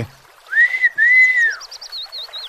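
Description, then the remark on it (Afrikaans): A person whistles loudly to call cattle: two long, arching whistled notes, then a quick run of short, higher warbling chirps, with no talking. “Weer fluit hy vir sy beeste en sê:”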